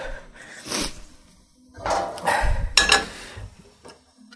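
Metal cookware clanks and scrapes as someone searches through their pots for one to cook with, with several irregular bangs and rattles, some bright metallic clinks ringing out between quieter shuffling.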